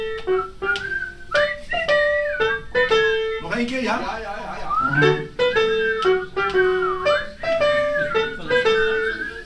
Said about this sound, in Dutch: Om te beginnen instrueert … het publiek op welke melodie men kan meefluiten